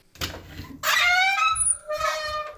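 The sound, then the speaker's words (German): A little door creaks open in a few drawn-out, squeaky groans, high and tonal with a slightly wavering pitch, fairly loud with no voices over it. “Öffne das Türchen.”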